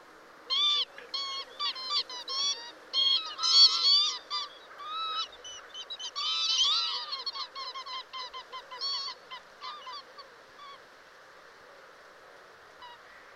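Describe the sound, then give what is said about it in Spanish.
A bird repeatedly gives sharp, very high-pitched, striking calls in rapid bursts, loud, with brief pauses between clusters before the calling tapers off near the end. “un sonido muy agudo, muy llamativo, la verdad es que no es una ave muy prolija en, comunicación, sobre todo en la época del apareamiento, pero es otra de las vinícolas que podemos ver, de hecho la estamos viendo estas semanas eh, con el temporal,”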